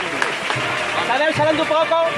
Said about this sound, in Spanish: Rompe el aplauso en el barrio León.